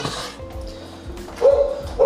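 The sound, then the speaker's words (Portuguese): A dog barks repeatedly in the background, a couple of sharp, high yaps standing out toward the end over a low, steady hum, with no voices in between. “Nossa, que cachorro insuportável latindo de fundo.”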